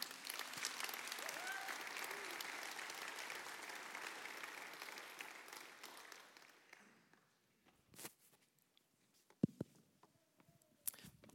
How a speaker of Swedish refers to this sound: Eh, och jag önskar att ni skulle ge en varm applåd.